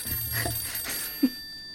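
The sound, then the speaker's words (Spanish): A telephone rings with a steady, high electronic trill for about a second as a caller phones in to the Doctor Canseco radio love-advice program, followed by a short low blip as the line connects. No one speaks. “Lo bueno es que mi teléfono es súper rápido. Creo que entró mi llamada.”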